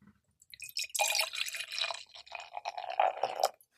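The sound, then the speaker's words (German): Steady fizzing and crackling of beer in a glass, a dense stream of tiny bright pops and bubbles lasting a few seconds before trailing off, with no voices. “aber das ist der absolute Hammer. Das knistert in den Ohren.”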